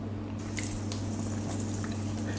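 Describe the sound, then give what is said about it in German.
Vegan butter bubbling and crackling in a hot frying pan on the highest heat, before fish is cooked in it, a steady sizzle with small wet pops and crackles scattered throughout over a low constant hum. “So, und jetzt seht ihr, jetzt ist die Butter richtig schön blubberig.”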